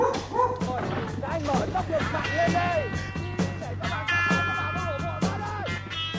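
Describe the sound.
Several Vietnamese police dogs bark and yip repeatedly in loud, overlapping bursts over a steady low hum and background voices, with a car faintly audible.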